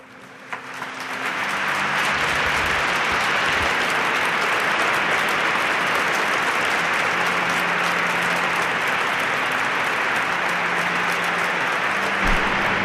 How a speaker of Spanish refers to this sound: Con este aplauso el pueblo de Dios asiente a esta ceremonia de beatificación